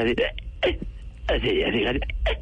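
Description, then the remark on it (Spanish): A voice mimics ranchera-style singing in the manner of a singer, breaking into short, catchy hiccup-like yelps: a few quick bursts, then a longer warbling phrase with sharp vocal breaks, loud. “¿cómo es que llamas a vaina que le da a … cuando canta así?”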